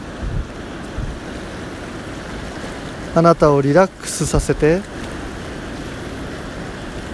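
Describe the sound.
A steady wash of ocean surf rolls on throughout, a soft continuous roar of waves breaking on the shore, with a calm voice speaking briefly over it midway.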